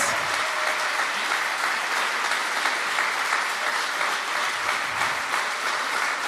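A big round of applause from a church crowd for the church's leaders: dense steady clapping that stays loud and even throughout, with no speech over it.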